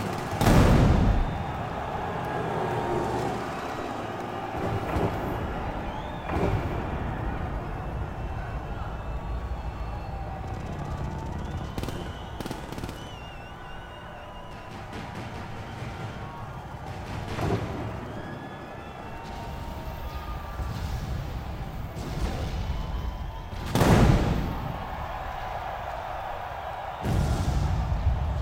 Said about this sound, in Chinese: 但我听到的采样是真的枪的声音，不是游戏里的那个。